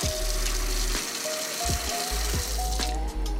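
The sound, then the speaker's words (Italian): A washing machine fills with water while doing the laundry at home: a steady rush of flowing water over a low mechanical hum, with faint intermittent clicks and whines and no talking. “sentirete anche qualche rumore casalingo mentre la lavatrice è, fa il bucato”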